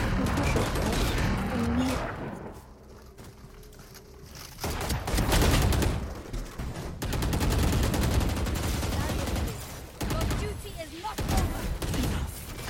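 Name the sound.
video game gunfire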